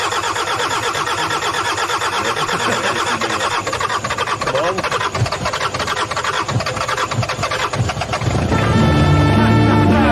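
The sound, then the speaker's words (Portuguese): An old car engine cranks with a rough, rattling churn for several seconds, then catches and settles into a loud, steady low rumble as it idles. “Now we've seen that it started. Yeah, it did start.”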